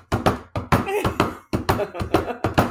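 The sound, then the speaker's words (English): Knuckles rap out a pep band bass drum pattern for a song on a hard surface, fairly loud, with bursts of rhythmic knocks, a brief pause, then the beat resuming. “I got bloody knuckles playing this song.”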